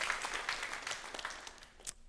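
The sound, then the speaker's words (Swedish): An audience at a confirmation claps together in a dense, steady wash of applause with no voices, thinning out and dying away just before the end. “Ska vi ge honom en applåd?”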